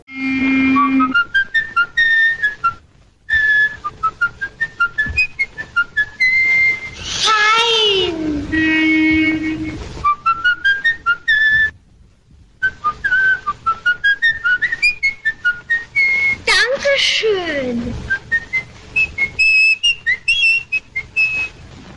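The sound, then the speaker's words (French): A man whistles a lively melody in clear, bright notes, with brief pauses between phrases and some faint background noise and movement sounds in the middle. “Et en fait, on va savoir aussi plus tard que ce sifflement représente aussi euh, bah, le meurtrier, donc la mhm.”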